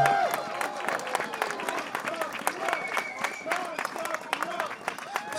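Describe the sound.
An audience applauds steadily, many hands clapping in a dense, continuous patter with a murmur of voices mixed in throughout.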